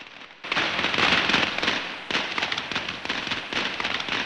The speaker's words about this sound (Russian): Ну, мне, конечно, нравится новогодняя еда, мне нравится давать интервью, и еще мне нравятся китайские хлопушки, которыми отгоняют бесов. Чудовище Нян Шоу.